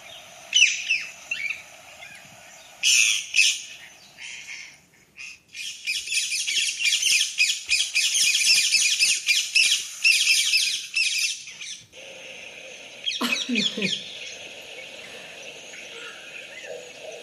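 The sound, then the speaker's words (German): Harsh, piercing squawks of an Alexandrine parakeet ring out in repeated bursts, loudest in a long raucous stretch through the middle, followed by a short pause and one more sharp outburst, with no talking. “So, das ist ein Alexander Sittich.”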